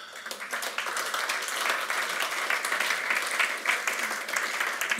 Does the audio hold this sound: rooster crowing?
no